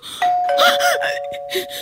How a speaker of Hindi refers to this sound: hello watchman भैया आप please एक बार ऊपर आकर देखिए ना बार बार कोई मेरी डोरबेल बजा रहा है